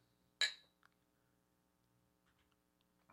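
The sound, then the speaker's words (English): A single bright clink of two glasses touching in a toast before tasting a drink, with a brief ringing tone that fades quickly, followed by near silence and a couple of faint small taps. “Cheers. Let's see what this tastes like. Cheers.”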